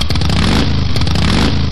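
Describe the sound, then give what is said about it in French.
An R8 motorcycle engine roars loudly, a dense, throaty growl that holds steady with slight surges throughout, with no voices over it. “Et en effet, moi, je vous présente la moto R8 très efficace.”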